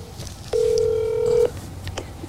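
A single steady telephone ring tone at a mid pitch sounds for about a second, then stops, leaving faint low background noise. No one speaks.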